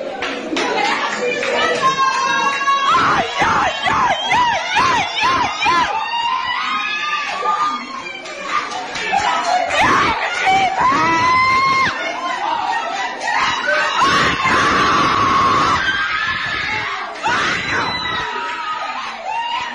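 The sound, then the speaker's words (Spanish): A family screams and cheers in wild excitement as their 18-year-old Tunisian relative wins Olympic gold in swimming, loud, with overlapping shrieks, yells and bits of laughter rising and falling nonstop for about twenty seconds. “Así suena ver a tu hijo, primo, hermano, así suena ver en familia a un niño de 18 años ganar el oro, el oro olímpico en natación, siendo tunecino, nadando lejos de los flashes, sin que nadie espere nada de vos.”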